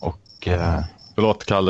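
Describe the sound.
A steady, high-pitched chirring of crickets runs faintly in the background on a man's end of an online call, audible in the pauses between short bursts of his speech.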